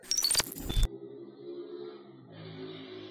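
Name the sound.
motorcycle passing outside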